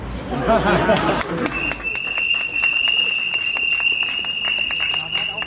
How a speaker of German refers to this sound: Also könnt ihr mal klatschen.